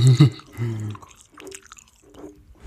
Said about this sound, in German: Ähm, ich kaue. Warte mal, so richtig nervig. Für Leute, die das hassen, jetzt richtig nervig so. Heißt das nicht irgendwie ASMR?